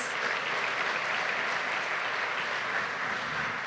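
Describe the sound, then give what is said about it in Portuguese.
A church audience applauds the name of the Lord, a dense, even wash of many hands clapping that holds at a constant level throughout, with no voices rising above it. “Aplaudo o nome do Senhor mais uma vez.”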